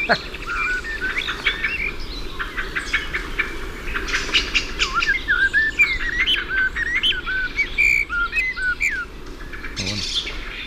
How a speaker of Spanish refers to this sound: Mirlo aquí delante y atrás también son mirlos, pero están reclamando y se están zurrando unos con otros.